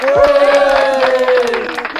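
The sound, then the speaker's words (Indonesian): Scattered audience applause welcoming viewers at the start of a live Radar Depok channel broadcast from the third floor, quick irregular claps running throughout, beneath a loud sustained voiced tone that holds steady and then gently falls away. “Kita kasih tepuk tangan dulu.”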